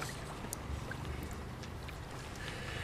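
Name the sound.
water lapping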